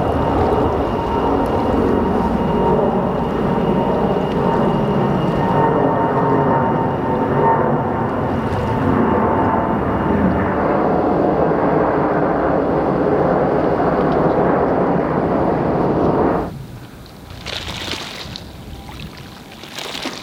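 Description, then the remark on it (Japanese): Night-time factory ambience in the Keihin Industrial Zone: a loud, steady machinery drone with a faint humming tone runs unbroken, then abruptly drops to a quieter wash of airy hiss near the end. “目覚めのいいね今朝は京浜工業地帯工場夜景のいい音”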